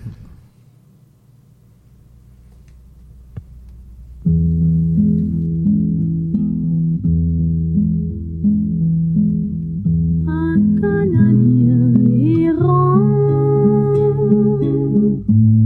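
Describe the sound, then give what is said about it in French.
After about four seconds of near silence, a recording of the folk song "Un Canadien errant", whose lyrics were written in 1842, starts with warm, sustained instrumental chords; a brighter melody line rises over them later, steady and moderately loud. “on continue en euh, musique avec Un Canadien errant, qui est une chanson folklorique dont les paroles ont été écrites en 1842 par Antoine Guéret-Lajoie, euh, qui a été reprise à plusieurs fois”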